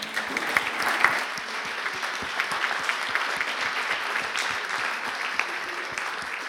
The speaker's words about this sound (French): Je pense qu'on peut applaudir nos intervenants.